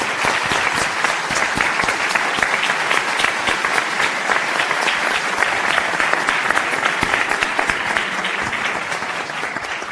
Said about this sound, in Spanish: Y por eso nuevamente me permito felicitar y pedirles un fuerte aplauso para nuestro director distinguido,